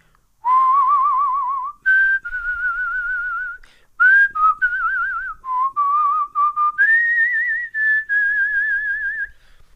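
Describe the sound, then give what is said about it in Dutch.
A person whistles a slow, wavering melody, with sustained notes separated by brief pauses and a strong vibrato on each tone, no talking alongside. “Ik zal u even voorfluiten, in zover ik het kan.”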